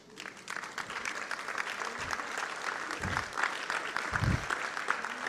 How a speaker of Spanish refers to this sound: ¿Cuántos se atreven a darle un aplauso ahora?